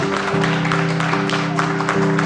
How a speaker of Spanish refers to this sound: Denle un aplauso a nuestro Dios. Déselo fuerte al Señor, hermanos. No se cansen.